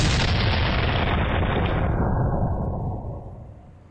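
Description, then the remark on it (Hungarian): A loud, recorded explosion-like blast rumbles throughout, a dense roar of deep, noisy energy that gradually dulls and fades near the end. No voices are heard. “hogy a hang erejéből is helyesen kikövetkeztethetjük, ez ugye egy robbanásszerű dolog, ami lényegesen különbözik a, különbözik a rakétaindítástól.”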